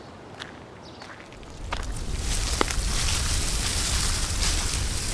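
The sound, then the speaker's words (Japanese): Dry, continuous rustling and crackling of tea leaves being roasted and stirred in a large iron pan at a tea-making workshop, growing louder after a quiet start, with scattered sharp scrapes and a low rumbling undertone. “あのこれは今何をしているんですか見てわかんないかい茶葉をいってるんだよこういう大きな鉄の鍋でやるんですね”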